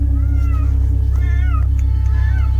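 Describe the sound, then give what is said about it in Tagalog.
Several cats meow and yowl around an overgrown corner of a cemetery in drawn-out, wavering cries, overlapping one after another against a steady low hum as a strong wind blows, loud. “Ayan na naman ang mga pusa sa paligid.”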